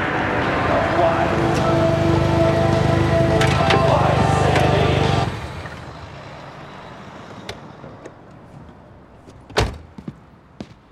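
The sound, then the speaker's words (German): An arriving vehicle rumbles in loudly with a sustained high squeal, then cuts off abruptly after about five seconds, leaving quiet clicks and a sharp door-like thump near the end. “Hörst du dieses Quietschen? Ich glaube, er kommt schon.”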